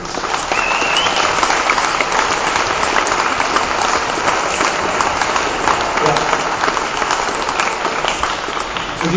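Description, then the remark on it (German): Sustained audience applause at a prize award ceremony, a dense, even wash of many hands clapping at steady loudness for several seconds, with no voices standing out above it. “Applaus.”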